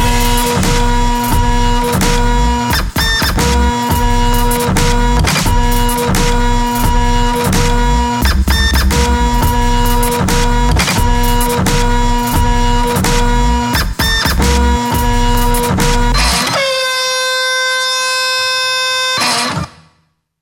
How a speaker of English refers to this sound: Oh man, dude, I think the printer's jammed. What the heck?